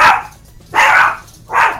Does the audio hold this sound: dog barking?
yes